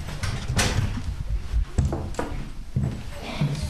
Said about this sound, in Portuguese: Abre-nos a porta de casa, aflita, a idade que pesa, a diabetes e a carta.